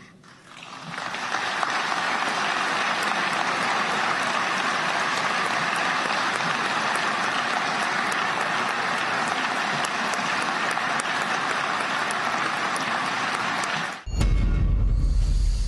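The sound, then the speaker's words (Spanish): Sustained applause from a large crowd, a dense steady wash of clapping that builds quickly and holds at full loudness for over twelve seconds before cutting off abruptly. “largo aplauso”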